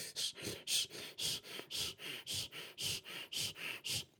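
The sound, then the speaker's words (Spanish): Rapid, shallow breathing demonstrated by a person to show how someone breathes when nervous: about fourteen quick, even breaths in and out in a steady rhythm, each a short airy hiss, with no talking. “Cuando nosotros estamos nerviosos, dejamos de respirar como lo hacemos cuando estamos relajados y la respiración es...”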